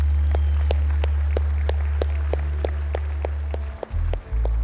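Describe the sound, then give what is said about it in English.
An audience gives a round of applause: steady rhythmic clapping in even beats over a sustained low droning tone, fairly loud and continuous, then briefly dipping near the end before resuming. “Come on, let's give God a round of applause today.”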